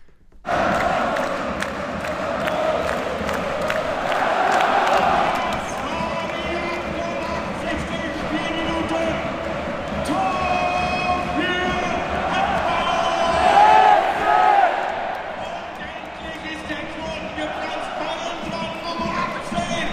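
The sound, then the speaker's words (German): A dense football crowd in Berlin's Olympiastadion roars and chants continuously shortly after a 2–1 goal, a loud sustained wash of many voices with rhythmic swells and a brief surge of shouting near the end. “Äh, kurz nach dem 2 zu 1 haben sich folgende Szenen im berlin Olympiastadion abgespielt.”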